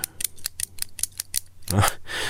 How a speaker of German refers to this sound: Und dieses ständige Klickern mit dem Kugelschreiber, das hat sie verrückt gemacht. Kann ich ja nachvollziehen. Und offenbar mache ich dieses Geräusch auch mal gerne, während wir diesen Podcast aufzeichnen.